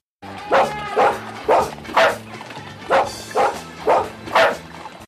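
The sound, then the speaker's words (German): Dogs bark in a steady, evenly spaced series of about eight loud barks, the same loop repeated with slight pitch shifts so they bark at different pitches, over a low hum. “Dann hast du jetzt so eine Art Timmy und dann hast du die gleiche Schleife noch dreimal, aber so leicht gepitcht dass die in unterschiedlichen Tonhöhen bellen.”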